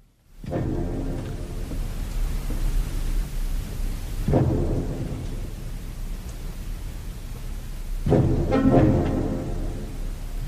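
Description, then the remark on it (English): Orchestral music featuring bassoon, built around three heavy, rumbling surges that swell up every few seconds over a dense low backdrop, fairly loud and with no voices. “I want to let people hear that Sorcerer's Apprentice clip so they can hear”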